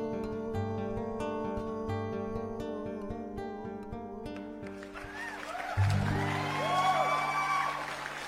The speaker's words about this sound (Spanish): Corresponden los aplausos, ¿no? Vale, aplausos.